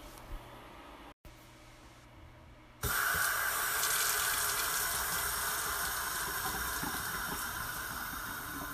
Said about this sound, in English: I'm running water in my kitchen sink. There it goes. It sounds different if you're running just a little water or if you run a lot of water like this. That's a lot of water.